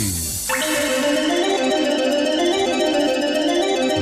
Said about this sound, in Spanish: saben ustedes cuando vamos a hablar del tiempo, pues, pues suena algo así.